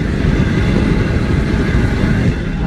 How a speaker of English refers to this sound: Stacking up the the paper and the serving things now, and the propane is roaring. Let's get some audio of the propane roaring. You can hear uh, the roar in the background